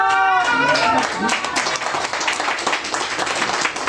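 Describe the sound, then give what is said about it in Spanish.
At a political event, a crowd breaks into steady, dense applause for a run for governor, carrying on for several seconds, with a brief raised voice or cheer at the very start before the clapping takes over. “Vamos para gobernador, una aplauso.”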